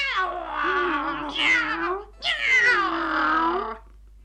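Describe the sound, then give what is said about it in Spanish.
A cat lets out two long, drawn-out meows, one right after the other, loud, with wavering pitch and a short pause between them. “Érase que se era un gato que nunca quebró ni un plato, ni anduvo por los tejados como los gatos malcriados, enfurruñados.”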